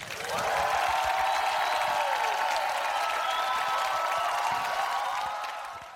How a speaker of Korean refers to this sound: 다시 한번 큰 박수 주세요.